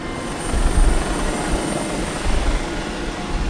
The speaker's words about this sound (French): Première lueur du jour, un hélicoptère prend son envol.